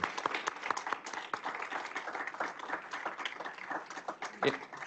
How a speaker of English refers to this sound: First of all, uh, could we have one more round of applause for all of the panelists and the speakers who were here today?